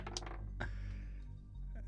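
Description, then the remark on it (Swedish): Dice clatter onto a hard table in a tabletop role-playing game, rolling a one, in a few quick, sharp clicks and taps spread over a couple of seconds, fairly quiet, with no talking over them. “ja, men jag slår ju en etta. Slå igen.”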